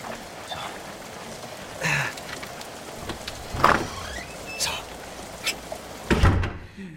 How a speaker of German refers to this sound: Und ich brauche eine Kreditkarte, um die Tür aufzubrechen.